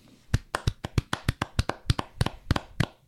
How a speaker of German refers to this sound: Applaus. Applaus.